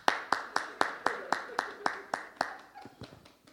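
A steady series of about ten sharp hand claps in an even rhythm, clear, slowing and fading near the end, with faint background murmur.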